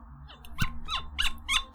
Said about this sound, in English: Oh, not gonna lie, mine was a very disappointing pop. It didn't. it just kind of it, it came out very smooth, and I was hoping for a. It did. That's why I kept twisting it to try and make a noise. Yeah, cork pop, so not not very satisfactory